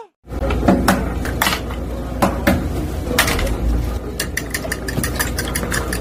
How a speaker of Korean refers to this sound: 계란 깨는 소리랑 젓는 소리.